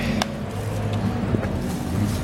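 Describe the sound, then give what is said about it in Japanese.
Steady low engine rumble and road noise fill the cabin of a moving city bus in Singapore, with a constant hum and a few faint clicks and rattles over about two seconds. “極寒ですねもうなんでこんなに寒いんだろうシンガポールのバス”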